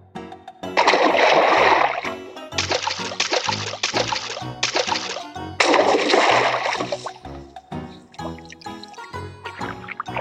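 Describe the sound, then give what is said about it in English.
Loud bursts of splashing water as a mother duck and her ducklings swim, several separate flurries of churning and spattering, with a soft musical backdrop continuing between and after them. “Wow, it is fun to swim in the water.”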